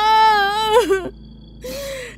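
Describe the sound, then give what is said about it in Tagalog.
A person whimpers and cries in a wavering, high-pitched wail that breaks off, then after a brief pause resumes with a shakier, breathy sob, fairly loud. “Bakit ka umiiyak?”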